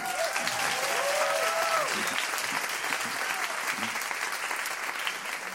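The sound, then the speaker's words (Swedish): An audience claps steadily for several seconds for a musician who has just played, a dense, even patter of many hands at moderate loudness, with a few faint voices and whistles rising briefly over it. “Ska vi också ge en applåd till, till”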